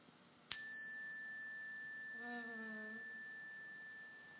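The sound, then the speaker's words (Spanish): A bell is struck once with the paper removed from it, giving a sharp attack and then a clear, high, pure ringing tone that sustains and fades only slowly over several seconds. “Voy a tocarlo sin el papel.”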